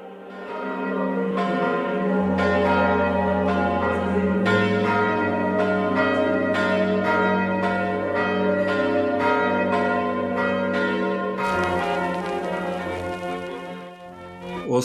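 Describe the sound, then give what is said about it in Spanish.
A swinging church bell rings loudly and continuously, its repeated clangs landing in a steady rhythm over a deep, sustained hum of overlapping tones, with no voices. “Oxiló un poco más, se mantuvo en vilo en el otro extremo del campanario, como si se regodeara con su siguiente crimen.”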